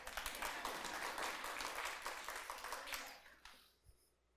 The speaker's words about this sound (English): Now you can clap.